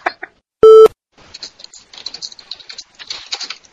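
Rapid, forceful clacking of computer keys in an irregular run of taps, preceded by a short, loud electronic beep. No one speaks.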